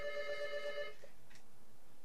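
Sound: doorbell ringing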